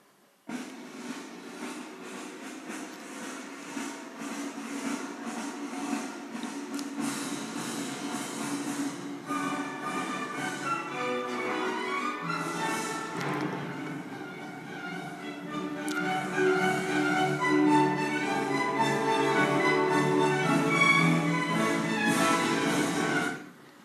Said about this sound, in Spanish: ¿Dirían que es alegría o tristeza? ¿Todos? Siempre hay alguien que dice tristeza. Y la pregunta es, ¿cómo es posible? Si esto es alegre, es percusión, es lo que nos ponen, es el concierto en Europa por lo menos del 1 de enero para empezar el año